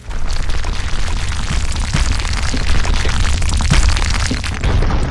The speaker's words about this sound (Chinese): 轰隆隆，一阵地动山摇，大地裂开，飞沙走石。一个约十米多高的巨型罗刹从地底下钻了出来。